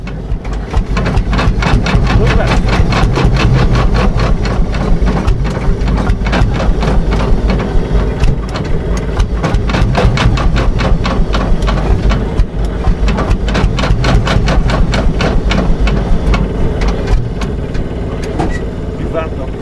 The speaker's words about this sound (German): Es ist nicht ganz einfach, einen Lanz Bulldog Traktor anzuschmeißen. Er muss mit einer Lampe vorgeglüht werden.